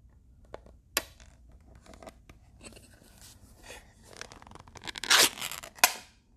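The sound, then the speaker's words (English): A small tin of Telegraph Hill tobacco being opened by hand: scattered dry scraping and crinkling, a few sharp clicks, and a brief louder rasp near the end, with no airy whoosh of a vacuum seal releasing. “I like that vacuum seal kind of whoosh, whoosh, but it's just not here.”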